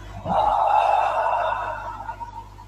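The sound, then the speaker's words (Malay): A long, steady, airy breath out through the mouth during a breathing exercise, lasting a couple of seconds and gradually fading away, with no talking over it. “tarik nafas hembus”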